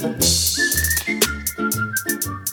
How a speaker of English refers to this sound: I love the beat, man. man. I love that. I love and that. The whistles? Yeah, it's so nice. Oh, this is so good.